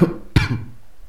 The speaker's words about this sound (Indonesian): ngomong masalah sehat gue akhir-akhir ini batuk sampai sekarang belum sembuh juga gitu ada kali dua minggu soalnya gini apa akhir-akhir ini sering banget hujan gitu tiap gua keluar malam buat kemana gitu ya pulang-pulang kehujanan